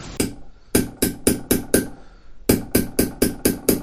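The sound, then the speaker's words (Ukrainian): A hammer taps an ornamental punch, a small tool bearing star, cross and circle patterns, to make an ornamental background in carving; quick, sharp metallic strikes, about a dozen in two steady runs separated by a short pause, each hit crisp and ringing bright. “І після цього є такі інструменти, такі дорнички з такими різними орнаментами, зірочками, хрестиками, кружечками.”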